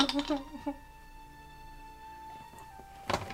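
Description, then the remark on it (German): Dice being rolled: a short burst of hard clattering knocks as the dice tumble, followed by a steady humming tone and one more brief clatter near the end. “Ähm, und, ähm, jetzt muss ich leider würfeln.”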